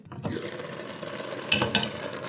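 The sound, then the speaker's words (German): Food sizzles in a frying pan in a kitchen with a steady crackling hiss, broken by two brief, sharper scraping bursts as if something is stirred in the pan. “Es brutzelt schon.”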